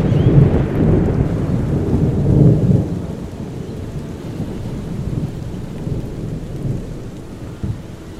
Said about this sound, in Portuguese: Esse lugar tá chovendo muito mais forte.